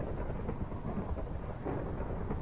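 Steady, dense rain pours down continuously while a deep, low rumble of thunder rolls underneath, filling the whole stretch at an even, moderate loudness with no voices.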